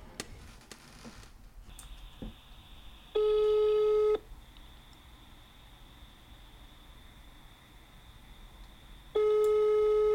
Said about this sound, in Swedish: Du får ringa längre för det tar tid för mig att komma upp och hitta telefon och sånt.